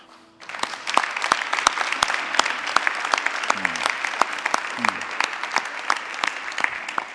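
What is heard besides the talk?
audience clapping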